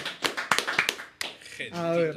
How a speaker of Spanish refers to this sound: Un aplauso para todos los que han participado.